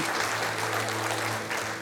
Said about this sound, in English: Let's applaud those in case I missed a hand, those online, in case I missed someone.